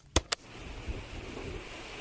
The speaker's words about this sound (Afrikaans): O, oh, daardie een is mooi en sag. Ooh, dit is regtig mooi. Ek wonder hoeveel maats weet wat daardie geluid was. Ek dink dis die geluid van die wind wat deur die bome waai. Dis reg. Partykeer is die wind sag en rustig soos hier.